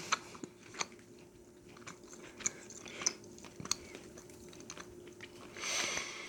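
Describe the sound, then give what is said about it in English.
Crunching as someone bites into and chews a dry, hard baked food shaped like a turkey, with irregular sharp crackles over several seconds and a brief breathy sniff near the end; no talking. “After three bites of this stuff, I can't swallow another bite.”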